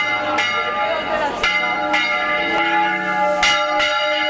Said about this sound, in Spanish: El repique de campanas puede servir para avisar a la población de catástrofes naturales como incendios e inundaciones, del comienzo de actividades lúdicas, del anuncio de decretos y noticias.